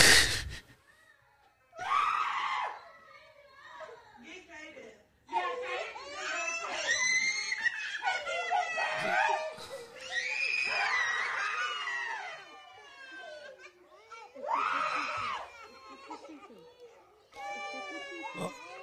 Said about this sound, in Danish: Det er super ubehageligt, det her. Og man kan, jo, man kan jo virkelig høre, hvordan de hylder og skriger